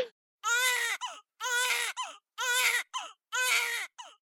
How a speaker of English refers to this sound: All right, the sound of that baby crying means it's time for this week's segment of Birth It Up Babies.